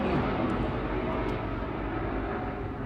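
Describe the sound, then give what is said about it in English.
A steady, loud rumble of helicopters drones overhead, a dense low roar filling the air without a break for the whole few seconds. “Everybody wave at the nice helicopters. They seem to come over an awful lot, right in the middle of everything.”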